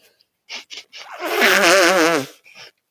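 A few short sniffs lead into one long, loud nose blow lasting about a second, a wavering, honking blast that sounds like an elephant trumpeting, followed by a brief snuffle.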